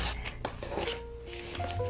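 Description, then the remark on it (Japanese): Crisp rustling and crinkling of paper flyers being folded and handled to make a trash bin, a steady scratchy shuffle with a few sharper crackles, fairly quiet, with a faint tonal hum in the background and no talking. “今私これチラシでゴミ箱作ってるからその音だと思ううるさいかな後で聞いてみよううるさかったらごめんなさいすごいシャカシャカ言ってるかも”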